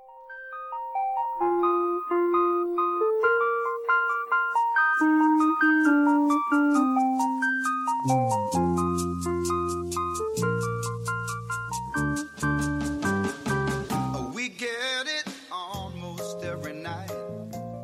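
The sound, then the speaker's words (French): A pop song plays on the radio show Café Kawa at a steady, fairly loud level, starting with a bright melody and filling out with fuller chords and bass partway through, with no one talking over it. “On enchaîne avec de la musique nous sommes arrivés au studio ce matin sous la lumière de la lune, donc on écoute”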